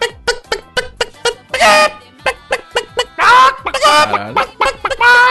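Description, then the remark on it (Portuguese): A hen clucks in quick, rhythmic bursts that build into loud, drawn-out squawking cackles, the excited call of a hen laying an egg, alone with no talking. “Uma galinha botando.”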